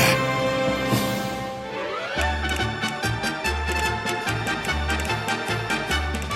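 Crisp castanet clicks rattle in a steady, quick rhythm over lively Spanish-style music with a pulsing bass line, following a short rising orchestral swell at the start.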